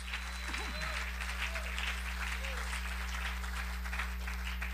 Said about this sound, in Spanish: Ah, gloria a Dios, démosle un aplauso a Dios, hermano. Gloria a Dios.